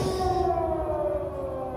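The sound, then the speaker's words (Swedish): Air raid warning sirens wail steadily in Paris during war, their long tones slowly sliding downward in pitch over a dense, rumbling background of bangs, loud and continuous with no voices. “Och sen har vi sirenerna. Det här är krig.”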